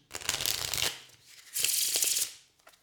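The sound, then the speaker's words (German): A deck of playing cards is shuffled in two quick riffle bursts, each a dense, crisp flurry of fluttering card snaps lasting under a second, followed by a faint tap as the cards settle. “Warte, ich mache einmal Mischen. So klingt Mischen.”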